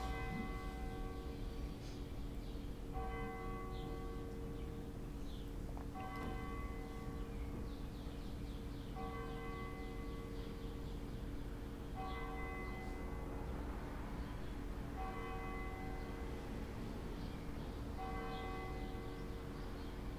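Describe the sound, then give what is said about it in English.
A church bell tolls slowly and steadily, one ringing strike roughly every three seconds, each tone lingering into the next over a low, constant background rumble. No voices. “For whom the bell tolls.”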